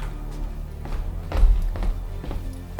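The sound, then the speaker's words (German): Steady footsteps walking at an unhurried pace, about five distinct steps over a low background hum, moderately loud with no voices: a person leaving a bathroom and walking back into a hall. “Schließlich verließ der dritte Detektiv das Bad und kehrte nachdenklich in den Saal zurück.”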